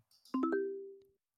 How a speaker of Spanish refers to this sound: Este es el sonido de recomendación.